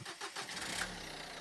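A Volkswagen Golf 2 car engine cranks with a few quick starter whirs, catches, and settles into a steady idle. No one speaks.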